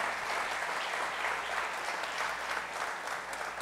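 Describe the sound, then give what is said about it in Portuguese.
Steady, dense audience applause filling the whole stretch, a continuous crackle of many hands clapping at an even, fairly loud level with no voices standing out. “Dá um aplauso a ele.”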